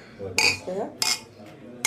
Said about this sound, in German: Prost. Prost. Wie Sie am Prostgeräusch gehört haben, war jetzt nur ein Bierglas beteiligt.